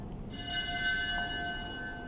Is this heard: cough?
no